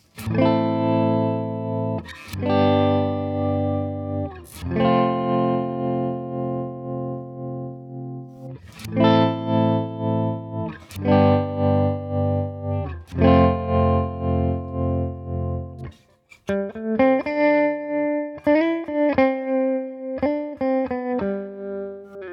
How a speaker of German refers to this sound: Okay, also wir können jetzt hier, man hat es ja jetzt deutlich gehört, ne, die Lautstärkenmodulation